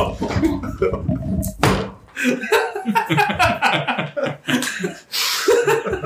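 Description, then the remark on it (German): A sudden heavy thud of someone falling off a chair breaks in amid ongoing talk and laughter, then the chatter carries on. “hast du vom Stuhl gefallen?”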